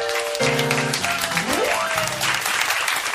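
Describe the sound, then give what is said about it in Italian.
A studio audience applauding and cheering steadily, dense clapping throughout, with a few sustained musical tones and a sliding note weaving through beneath it. “Senti il mio pubblico, senti, senti.”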